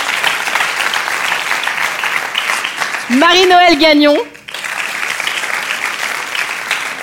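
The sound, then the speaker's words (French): Steady, dense applause from a crowd greeting five women as they are introduced at an evening event runs through the whole stretch. Partway in, a voice briefly announces something over the clapping, which continues unbroken afterward. “Oui, oui, vous pouvez les applaudir,”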